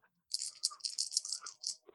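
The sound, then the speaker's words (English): Dice rattle and clatter for about a second and a half: a quick run of bright, hard clicks in uneven bursts, moderately loud, with no talking over them. “Roll your dice.”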